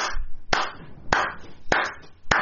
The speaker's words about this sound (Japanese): こう拍手されて。